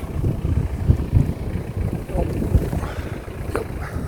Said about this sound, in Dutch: De wind blijft ons maar achtervolgen, waar ik ook ben. Zelfs in Schiedam in het Sterrenbos.